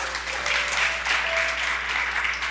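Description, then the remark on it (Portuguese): Steady, dense applause from a crowd applauding for Jesus at a religious gathering, many hands clapping together in a continuous crackling wash that holds at an even loudness throughout, with no voices standing out. “Uma salva de palmas para Jesus, gente.”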